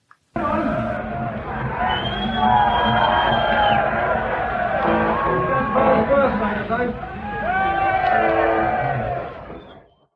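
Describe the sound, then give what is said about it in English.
A large concert crowd and the band sing "Happy Birthday" to guitarist Dave Murray at a gig at the Ruskin Arms, Bruce Dickinson's first show with the band, a loud, sustained swell of many voices carrying the melody, with cheers and whoops rising near the end before fading out. “Dave Murray fact of the week is that this happened and here's some footage from it where the band and audience sing happy birthday to Dave Murray.”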